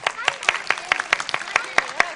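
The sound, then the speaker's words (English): Several children clap in a quick, steady patter, about ten sharp claps over two seconds, imitating hail as part of a group-made storm sound effect. Faint voices murmur underneath. “Or maybe some hail clappers?”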